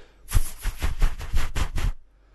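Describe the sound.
A voice imitates the heavy wingbeats of a flying hornbill, a very large bird with a big beak, producing about seven rhythmic breathy whooshes in quick succession like a chugging train, loud, lasting under two seconds before silence.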